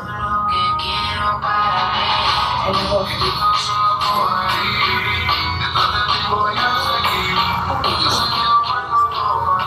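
A song with a singing voice plays steadily throughout, fairly loud and continuous, with full backing music and a low, even bass underneath.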